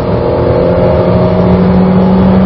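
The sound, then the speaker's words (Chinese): A Changan SUV engine revs hard above 5000 rpm during a test drive, a steady, loud droning roar with sustained harmonic tones that hold level throughout, no speech over it. “即便超过了五千转，这个时候无论是噪音还是整体的整机的震动，我觉得都是可以让人接受的。”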